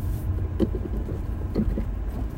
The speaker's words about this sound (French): Et B, dis donc, pardon, je conduis, vous l'avez entendu,